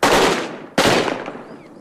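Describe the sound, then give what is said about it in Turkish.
Two sharp bursts of gunfire in the city of Gao, Mali, during a surprise attack by al-Qaeda militants resisted by Malian soldiers, each cracking loudly and then rolling off into a long, decaying echo, as if bouncing between buildings. “Silah sesleri Mali'nin Gao kentinde yankılanıyor.”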